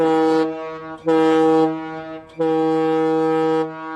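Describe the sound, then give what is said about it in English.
A loud, sustained horn honks three times with short gaps between blasts, a steady harmonic tone like a car or truck horn, played alone as a sound effect without any talking. “Uh, honk one for the Rev.”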